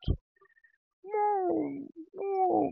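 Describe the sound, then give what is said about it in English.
A cat gives two drawn-out, plaintive meows in close succession, each sliding down in pitch, clear with no talking, after a brief soft thump at the start. The cat is waiting at a door to be let in. “Um, you can hear my little baby like”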